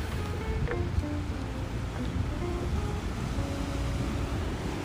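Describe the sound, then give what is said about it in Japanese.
A steady roar of ocean surf fills the whole stretch, a continuous wash of sparkling waves breaking on the shore, with some wind rumble underneath and no voices. “すごい波がキラキラしてて綺麗なんだよね今日”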